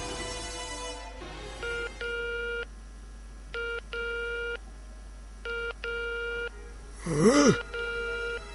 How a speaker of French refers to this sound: À peine les trois jeunes gens sont-ils partis que le vieil homme décroche le téléphone et compose un numéro